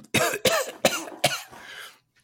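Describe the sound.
A person acts out a sputtering coughing fit while coughing out seawater: four harsh, wet bursts in quick succession, fairly loud, with no words spoken.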